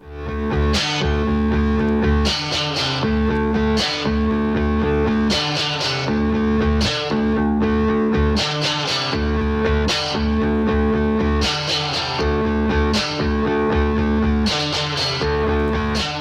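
A rock song starts up with loud, distorted guitars playing sustained chords over a steady drum beat, bursts of crashing cymbals recurring every couple of seconds. No one speaks over it.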